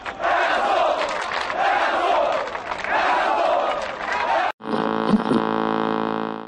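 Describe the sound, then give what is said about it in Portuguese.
A huge stadium crowd of Portuguesa football supporters chants loudly in rhythmic, surging waves, then after a brief break a sustained mass of voices holds a steady, tuneful chant. “No último minuto, Elson tira a portuguesa do sufoco, livra Candinho das vaias e muda o coro da torcida.”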